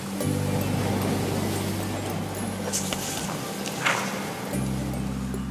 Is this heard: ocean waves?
yes